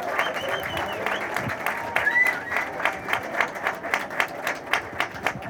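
Crowd applause at an outdoor protest rally, thanking the protesters: dense, steady clapping that settles into a rhythmic, pulsing beat toward the end, with a few scattered voices mixed in.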